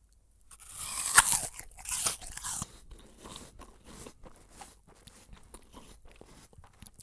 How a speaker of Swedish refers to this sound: Alla vet ju hur det låter när man biter ett äpple.